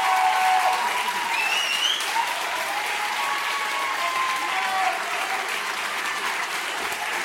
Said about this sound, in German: Ja, finde ich. Applaus!